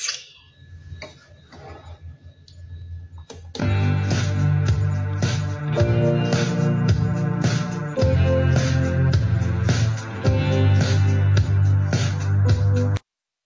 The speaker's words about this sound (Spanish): Bien, como me lo pidieron y yo no aguanto más, va, pequeño adelanto del primer sencillo.